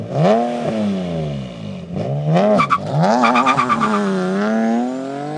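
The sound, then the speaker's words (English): A Nissan 370Z sports car engine revs loudly in rising and falling sweeps, with a brief squeal and rapid throttle blips, before the car accelerates steadily away with a climbing whine. No voices are heard. “Oh, Nissan 370Z. Let's listen to this one. Oh, yeah. Hmm. Let's drive this car away.”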